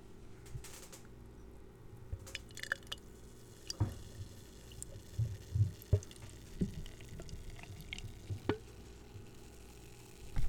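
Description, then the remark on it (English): Dry stout beer pours into a glass, with quiet gurgles, scattered drips and soft fizzing pops over a low steady hum; no one speaks. “Hold on before you pour.”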